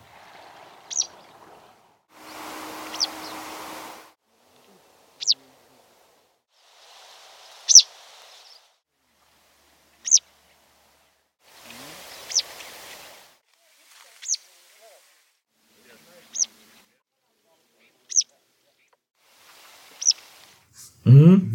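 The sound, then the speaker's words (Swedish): Citrine wagtail calls: a series of short, sharp, buzzy call notes repeated at roughly two-second intervals, clear, with bursts of rustling and stream-like noise between them. “Eh, så i den här samlingen som kommer här nu så hör ni de säkra citronälerna.”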